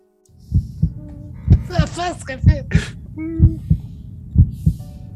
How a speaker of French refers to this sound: continue d'entendre le battement, malgré la mort, des deux vers conquérants. Et tu sens, à partir de ce moment, que jamais plus les battements du cœur ne te quitteront.